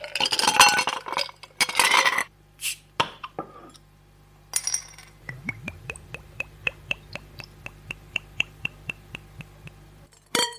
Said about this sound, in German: Und das waren für viele natürlich traumhafte Geräusche. Ähm, das hat sich angehört nach Flaschen öffnen, nach Eis, nach äh, irgendwelchen Getränken.